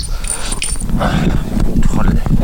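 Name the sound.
dog whimpering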